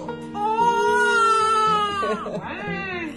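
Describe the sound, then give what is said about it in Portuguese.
A newborn baby cries in the early hours before dawn: one long, strained wail that wavers and sinks in pitch, then a short catch and a second cry beginning, loud and alone. “Olha quem está chorando aqui, já de madrugada.”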